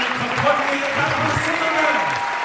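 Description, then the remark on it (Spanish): Sustained applause from a large audience filling the Gare du Midi hall in Biarritz for Gael García Bernal at the Festival Biarritz América Latina, a dense steady crackle of many hands clapping at an even loudness, with faint murmuring voices mixed underneath throughout. “La sala de la Gare du Midi estuvo repleta para ver y aplaudir a Gael García Bernal.”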